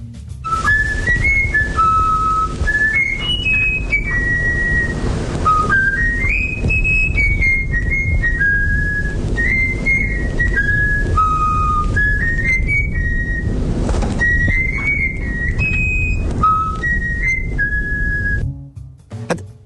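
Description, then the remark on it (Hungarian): A trained songbird whistles a learned tune: a clear, bright melody of stepped, sustained notes plays steadily for almost twenty seconds over a constant low rumbling background. “gyakorlatilag, gyakorlatilag tökéletesen elfütyülte.”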